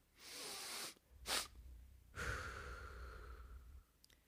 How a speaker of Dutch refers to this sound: Dat is tweemaal inademen en dan eenmaal sterk uitademen. Bijvoorbeeld één diepe ademhaling door de neus. En wanneer dat je denkt dat je genoeg lucht hebt, nog één extra snuif doen en dan zwaar uitademen door de mond. Zo.